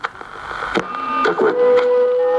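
Steady static hisses from a radio set as Charles turns its knobs trying to tune in stations, broken by sharp crackles and pops, with thin whistling tones that sweep and waver. Fairly loud, no voices.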